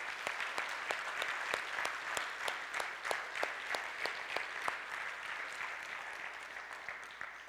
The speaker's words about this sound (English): And then, church, can we just give them a round of applause to thank them for their sacrifice for our country?